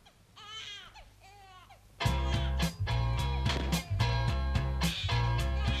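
An infant cries in wavering wails for about two seconds, a cry the band added to its recording, then the loud band kicks in with full instrumentation and the cry fades beneath the music.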